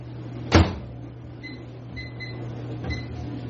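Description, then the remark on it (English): A microwave door thumps shut, followed by a few short electronic keypad beeps, then the steady low hum of the oven running as it heats water for about six minutes. Clear, with no talking. “And put it in the microwave for about six minutes.”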